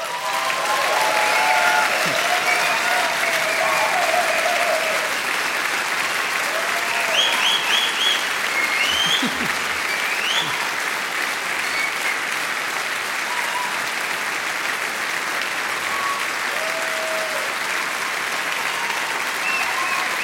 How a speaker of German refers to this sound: Langer Applaus für den Maxi Schafroth und seine Fastenpredigt 2023.